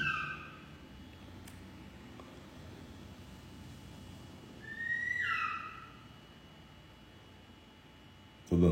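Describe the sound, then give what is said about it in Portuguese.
A bird calls over a steady low rumble: a brief thin cry at the start, then a louder, high, wavering screech lasting about a second midway, with no one speaking. “Eu acho que às vezes é uma coruja.”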